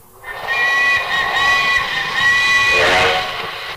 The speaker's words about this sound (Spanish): Pero viene o no viene el tren.